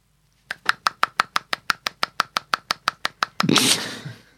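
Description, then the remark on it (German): One-handed clapping: a quick, steady series of about seventeen sharp, crisp claps, evenly spaced and fairly loud, followed by a short, louder burst of rough noise. “Ich kann einhändig, klatschen, das habe ich da festgestellt.”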